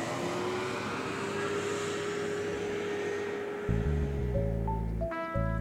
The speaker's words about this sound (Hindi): गाड़ी स्टार्ट की उसने और ड्राइव करना शुरू किया